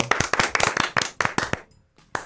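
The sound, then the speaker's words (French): A short burst of hand clapping from a few people, quick and slightly uneven, lasting about a second and a half before stopping, with one last stray clap after a brief pause, applauding listeners who answered film riddles. “On peut vous applaudir.”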